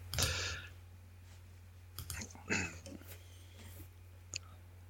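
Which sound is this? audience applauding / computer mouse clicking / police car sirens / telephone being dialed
computer mouse clicking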